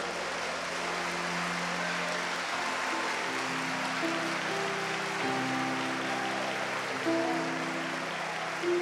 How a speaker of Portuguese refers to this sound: Vamos dar um aplauso ao Senhor, amados.